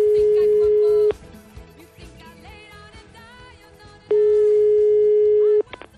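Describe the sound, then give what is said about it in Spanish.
An outgoing call's ringback tone: two long, steady electronic beeps about three seconds apart, loud and clear over quieter background music and faint voices. “Que llamé y, y a ver qué pasaba con Amelio”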